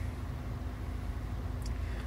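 A steady, low rumble of engine and road noise from inside a moving car, continuous and even throughout, with a faint brief high tone near the end and no talking.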